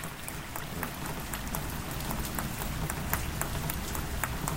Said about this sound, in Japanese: ああ雨か雨降ってきたから窓を閉めてくれない